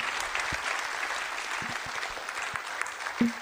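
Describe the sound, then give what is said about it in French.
An audience applauds the guests steadily, a dense wash of many hands clapping at a moderate level, with a few sharper individual claps standing out from the crowd. “On peut euh, applaudir nos invités.”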